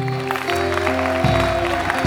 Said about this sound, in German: Lass uns diesen Leuten einen Applaus geben.